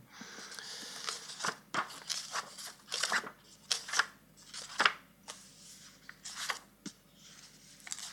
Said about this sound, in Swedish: Vi har en svensk BOS som jag håller i handen och vi har en recension av Bonniers. Ja, vad skönt. Som jag nu ska läsa. Äntligen. Nu ska jag bara bläddra fram den här.